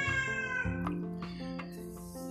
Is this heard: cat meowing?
yes